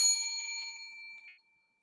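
A single bell rings out clearly with a bright metallic strike, its tone lingering and slowly fading over about a second and a half, heard alone with no voices.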